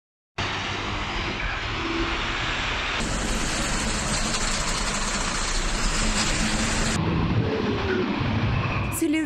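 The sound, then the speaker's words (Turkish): Loud, steady roar of a yellow excavation dump truck speeding along the TEM motorway in Edirne, with constant engine rumble and rushing road and wind noise that shifts in tone partway through. “Edirne'de Tem otoyolunda aslında tüm İstanbulluların her gün her an rast geldiği ve korku yaşadığı gibi yine bir sarı hafriyat kamyonu hızla ilerliyordu.”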